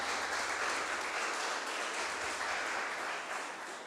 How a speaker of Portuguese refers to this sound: Gente, vamos aplaudir Jesus, porque ele é extraordinário.